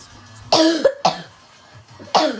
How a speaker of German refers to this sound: Entschuldigung wegen meinem Husten nicht. Er hat Husten.